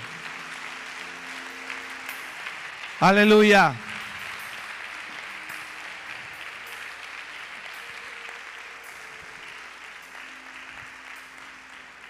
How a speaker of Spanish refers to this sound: Dale un aplauso fuerte a Él.